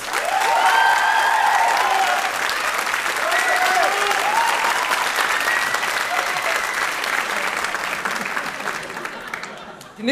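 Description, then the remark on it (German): Sustained applause from an audience for a contestant from Kiel during a tie-break fills the whole clip, a dense steady clatter of many hands with a few whoops and cheers rising over it before it starts to thin out at the end. “Euer Applaus!”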